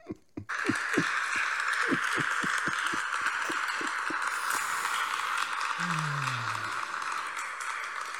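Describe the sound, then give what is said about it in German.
A dense wash of crowd applause rises abruptly and holds steady for several seconds, with rhythmic low thumps beating through it and a brief falling low tone near the end. No one speaks. “Schön, dass du dir deinen eigenen Applaus mitgebracht ja. hast.”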